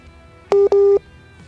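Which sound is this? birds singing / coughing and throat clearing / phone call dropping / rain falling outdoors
phone call dropping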